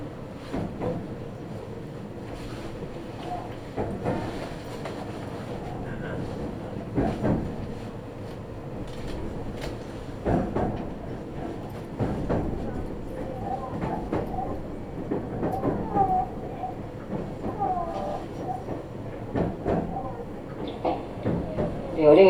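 A Nagoya Railroad (Meitetsu) commuter train on the Chita New Line and Kowa Line in Japan, running from Utsumi via Fuki to Kowa, rolls steadily along the rails, heard from inside, with a constant low rumble and regular clacks of the wheels over rail joints every couple of seconds.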